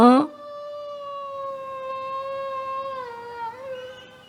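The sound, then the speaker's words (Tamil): A single long wolf howl rises from a brief sharp onset and holds a steady, clear tone for several seconds before wavering and dipping near the end. It is fairly loud. “இதோ ஓநாய் வருது பாருமா சத்தம் கேட்குதுமா”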